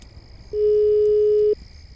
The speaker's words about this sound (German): komm, komm, komm, nimm das Telefon ab.